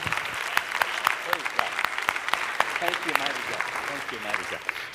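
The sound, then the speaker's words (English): A church audience claps together in a dense, sustained burst of applause as praise to the Lord, with a few voices calling out underneath the steady clatter of many hands. “Why don't we just give the Lord a hand clap of praise, can we?”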